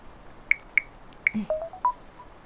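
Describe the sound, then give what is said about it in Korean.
Five or so short electronic beeps from a phone keypad being dialed to make a phone call, clear, pressed at an uneven pace, with the last couple lower in pitch. No one speaks. “전화 한 통만 할게요.”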